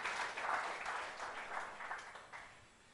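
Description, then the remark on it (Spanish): A church audience applauds for Christ with dense, steady clapping that fills the whole clip, fading slightly toward the end. No one speaks over it. “Dale un aplauso a Cristo, hermanos.”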